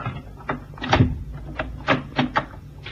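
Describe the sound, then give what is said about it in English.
A cabin door handle on an oriental-built ship with old carved woodwork rattles and clicks several times, followed by the creak and knock of the door being pulled open, moderately loud with no voices. “And now's my chance to try the door handle.”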